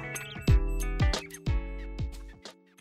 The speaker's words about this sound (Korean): 아, 공사 소리가 자꾸 들어가는데. 아 그래요? 예.